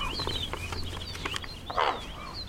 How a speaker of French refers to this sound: C'était un corbeau. Qui vient de se poser juste en face sur le réverbère.